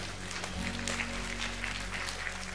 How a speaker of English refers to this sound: That's I, want to I want to applaud you. Yeah. Thank you.